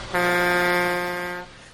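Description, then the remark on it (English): A tractor-trailer air horn gives one long, steady blast lasting just over a second, a loud, buzzy, low-pitched honk rich in overtones that cuts off abruptly, with no talking. “We have a tractor trailer this week.”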